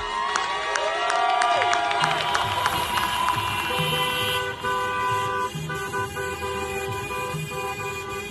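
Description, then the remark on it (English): A chorus of car horns honks over and over from a protest procession of cars, overlapping in long and short blasts, with engine rumble and crowd cheering in the background, fairly loud. “So instead of marching hand in hand, we join a procession of cars.”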